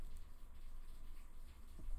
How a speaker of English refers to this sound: Listen to the rain. Listen to the rain.